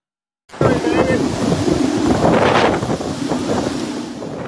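Roaring wind buffets the microphone over churning water during Hurricane Dorian, a loud, continuous storm rush of strong winds and high water with gusty surges and splashing.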